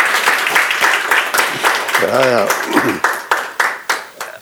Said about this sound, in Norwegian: Litt applaus.